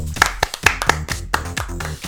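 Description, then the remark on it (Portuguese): A short round of clapping: quick, steady, evenly spaced hand claps at moderate volume, keeping a brisk rhythm for about two seconds with no voices over it. “Eh, quem nos aturou este tempo todo merece uma salva de palmas.”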